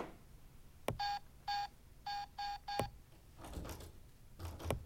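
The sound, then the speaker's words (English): Five short electronic keypad beeps of a code being entered, in an uneven pattern, two spaced then three quick ones, bracketed by sharp clicks, followed by a rustling, shuffling noise and another click. “must have hit the wrong keys.”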